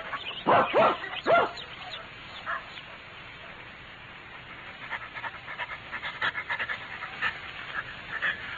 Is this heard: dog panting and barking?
yes